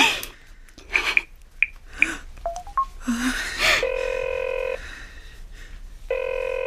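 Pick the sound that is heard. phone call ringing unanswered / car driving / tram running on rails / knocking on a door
phone call ringing unanswered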